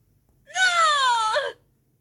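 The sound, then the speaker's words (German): A single drawn-out cat meow, clear, lasting about a second with a pitch that slides downward before fading, heard alone against a quiet background. “Das ist meine Katze.”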